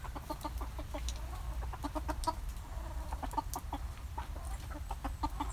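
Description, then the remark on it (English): Several hens cluck busily and continuously while eating corn scattered on the floor of a covered hen shelter, short repeated calls overlapping in a steady chatter over a low rumbling background, with occasional sharper pecking or scratching clicks. “Um, and in fact, I'm in the, uh, the hen conservatory now, just chucking some corn on the floor I'm hoping you can hear the hens.”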